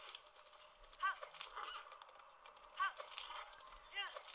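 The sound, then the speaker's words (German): Video game horse hooves gallop in a steady, fast clatter as the player hits the horse to spur it on, over a busy noisy background, broken by a few short, squeaky tonal calls. “Bam. Ich hau mein Pferd. Richtig schön.”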